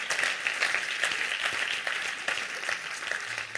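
Steady applause from a crowd, dense overlapping claps forming a continuous bright wash of sound at moderate volume, with no voices standing out.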